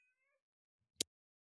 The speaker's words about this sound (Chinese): 我刚刚去处理一下我家的猫，它真的有点吵。